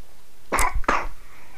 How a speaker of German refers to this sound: Da hustet meine kleine Coworkerin hier, die ich dabei habe.